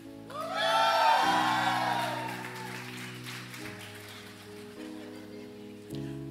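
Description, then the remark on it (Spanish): A large audience erupts in loud shouting, whooping and clapping on a speaker's count of three, peaking quickly, then gradually fading while sustained keyboard chords keep playing underneath. “Yo creo que si le pido que si usted cree lo que voy a decir, haga un escándalo en este lugar.”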